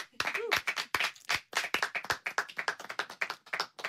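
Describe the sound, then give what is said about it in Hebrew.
Several band members, the band's bass players, clap their hands in a quick, irregular burst of sharp slaps, loud, lasting a few seconds without steady rhythm. “נגני הבאס של הלהקה מתבקשים למחוא כפיים.”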